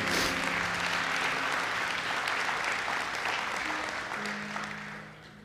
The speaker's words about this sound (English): Woodlake family, give all of our volunteers a huge round of applause. Thank you.